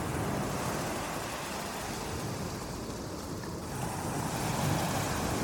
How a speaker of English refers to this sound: Imagine how the gentle swaying of the sea feels on your body as the rhythmic percussion of the waves continue to envelop